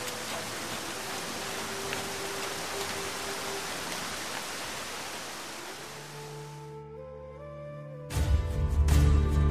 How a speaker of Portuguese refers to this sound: É, é uma chuva tranquila, assim, refrescante para molhar as plantas. Não tem raios ou trovões, é só uma chuva.